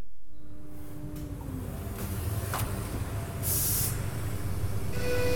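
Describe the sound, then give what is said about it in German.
Ambience of the machine room at the Osbergstoll AG woodworking company, with a circular saw and a moulding machine for milling profiles: a steady mechanical drone with low hum and faint tonal whine, broken by a few short clicks and a loud burst of hissing air partway through. No one speaks. “Dass die Osbergstoll AG allerdings nicht zu diesen Kleinbetrieben gehört, das merke ich spätestens in dem Moment, in dem ich den Maschinenraum betrete.”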